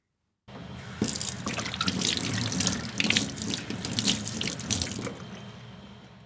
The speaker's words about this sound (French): C'est un robinet qui s'ouvre et de l'eau qui coule.